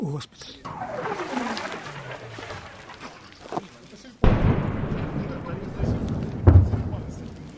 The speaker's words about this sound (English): Well, we've just had the whistling sound of incoming fire so close that we had to take cover.